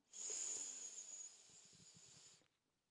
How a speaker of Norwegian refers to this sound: For eh, det gjør vi når vi puster, sant? Da puster vi godt inn med nesa.